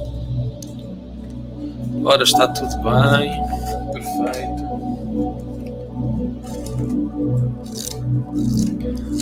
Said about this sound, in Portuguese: Então, tirar aqui uma cartinha. E hoje vou usar um baralho diferente.